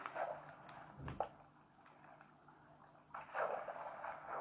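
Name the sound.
flowing water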